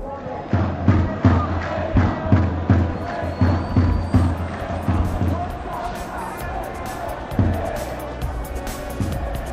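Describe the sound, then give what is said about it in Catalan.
A large crowd of protesters opposing Egyptian President Mohamed Morsi chants in Tahrir Square, Cairo, in a steady, pounding rhythm for about five seconds, then the beat dissolves into a loud, continuous roar of many voices with occasional swells. “Opositors al president d'Egipte, Mohamed Mursi, s'han enfrontat a la policia egípcia al Caire mentre milers de manifestants augmenten la pressió al carrer perquè es revoqui l'acte constitucional que ha blindat els poders del cap de l'Estat.”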